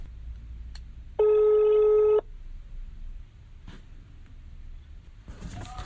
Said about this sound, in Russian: Ну что же, Давайте сделаем еще один звонок.